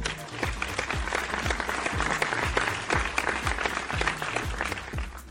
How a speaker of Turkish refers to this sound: Güzel valla. Alkış hak ediyor.